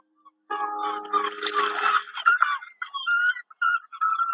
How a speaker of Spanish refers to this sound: Escuchan las gaviotas.